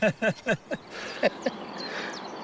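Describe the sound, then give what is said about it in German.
A voice imitates a chiffchaff's song with four quick, evenly spaced chirping syllables, followed by a few fainter, sharper chirps over a soft, steady outdoor background. “Der Zilpzalp. Und der ist sehr einfach zu erkennen, weil der wieder Kuckuck seinen Namen ruft.”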